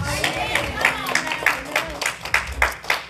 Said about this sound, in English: Can the church just give God a good hand clap of prayer?